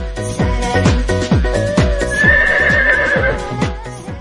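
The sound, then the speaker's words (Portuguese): A horse whinnies in a loud, wavering neigh partway through, over a steady clip-clop of hooves that keeps an even rhythm the whole time. No one speaks. “Até os cavalos querem passear.”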